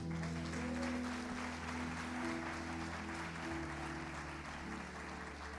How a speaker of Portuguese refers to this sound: Aplaude a Deus pela tua vida.